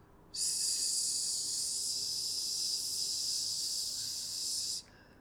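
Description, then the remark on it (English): A person holds a long, steady voiceless 'sss' hiss, the S sound made without the vocal cords vibrating, for about four and a half seconds, bright and airy at an even loudness, then stops abruptly. No words are spoken. “And so you can think of it um, between your S sound,”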